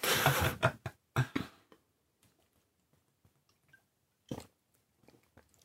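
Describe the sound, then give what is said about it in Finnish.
Someone takes a sip of beer: a few short, sharp clicks and gulping swallows in quick succession, then quiet with a faint clink near the end. No one speaks. “Pitäisikö ottaa hörppy tässä välissä?”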